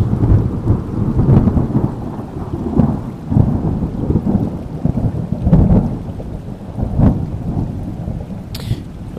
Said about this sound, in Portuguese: Bom, lá vem outro trovão.